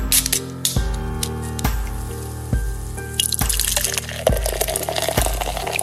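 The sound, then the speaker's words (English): Liquid Sunshine, a German style Pilsner from Breakside Brewery of Portland, Oregon, poured from a bottle into a glass, with a steady series of deep, hollow glugs about once a second and a rising fizzy hiss as the glass fills. No one speaks. “Tonight we are drinking Liquid Sunshine by our friends from Breakside Brewery in Portland, Oregon.”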